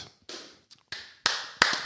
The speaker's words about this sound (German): Es gibt den, den wirklichen Live-Applaus. Und für alles, was er gemacht hat, auf dem Sender, auf dem Äther bei Sport 1.